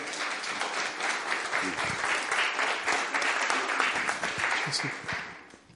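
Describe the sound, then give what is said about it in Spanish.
Sustained applause from an audience, given as an affectionate tribute to a brother, a dense, steady wash of many hands clapping at once that keeps up for several seconds before fading out at the end. “Un aplauso de cariño para nuestro hermano”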